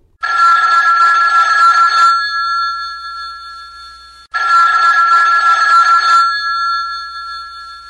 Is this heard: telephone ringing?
yes